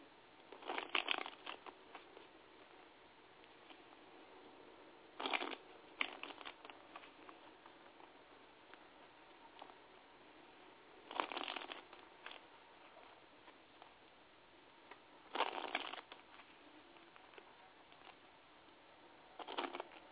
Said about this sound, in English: Just give me a moment while I shuffle.